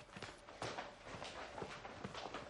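Footsteps of several people walking toward a door, one leading and the others following, a steady run of overlapping, irregular hard steps with dull thuds, fairly loud throughout and with no voices.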